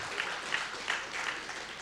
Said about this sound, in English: Come on, if you believe it, give Him a good round of applause today for His promises.